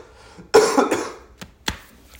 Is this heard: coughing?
yes